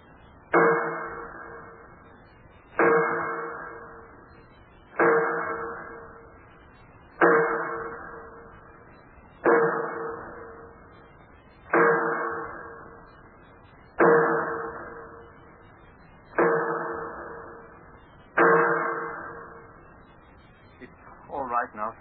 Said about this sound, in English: Cover your ears, sir. Huh? The bolts and wing bolts that hold the door shut, they have to be tightened by hammering with a sledge. Cover your ears, sir.